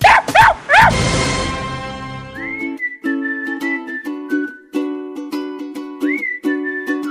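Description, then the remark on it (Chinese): A dog, the greedy dog of the Balaluo household, barks loudly three times in quick succession at the start, then a bright whistled melody takes over with a steady backing rhythm and no talking. “本期节目还有巴拉罗家那只好吃的狗赞助的两粒狗粮亲情播出。”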